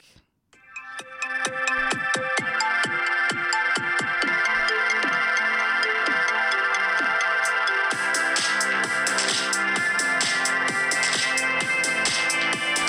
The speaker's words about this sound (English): Sounds legit. It's a 59 second song that I've just made.